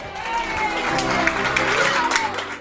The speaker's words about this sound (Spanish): Tras los aplausos de alegría desde los escaños del hemiciclo principal de sesiones